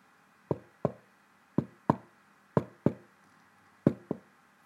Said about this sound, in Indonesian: Saat mereka mulai menghangatkan diri, mereka mendengar tiga atau empat ketukan di pintu.